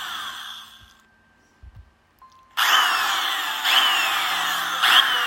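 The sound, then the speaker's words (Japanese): A loud electric drill whirs steadily, grinding with rising and falling pitch as it bites into a door while someone tries to open the door with it, starting after a brief quiet stretch and running continuously to the end. “何か電気道ドリルで扉を開けようとしてるぜ。”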